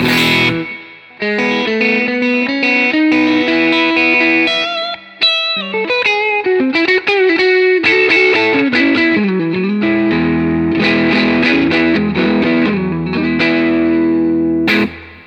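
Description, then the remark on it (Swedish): An electric guitar in the middle pickup position, played through a Benson Preamp, plays a continuous melodic riff with sustained, slightly overdriven notes and chords, loud, with no talking. “Yes, och sen så mellanläget.”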